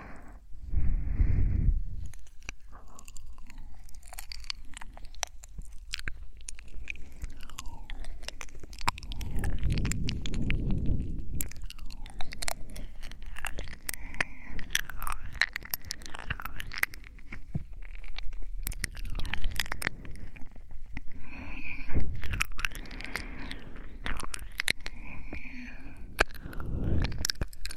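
ASMR ear-licking mouth sounds in a girlfriend roleplay: a steady, irregular stream of wet clicks, smacks and slurps with occasional low muffled thumps, continuing for nearly half a minute with no clear words.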